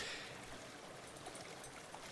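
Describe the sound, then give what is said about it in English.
A steady, continuous roar of waterfalls crashing into a river, heard from along the river at night, fills the whole moment with dense hiss and no voices, holding an even level throughout. “we have now reached the point where the crash of the waterfalls themselves are audible.”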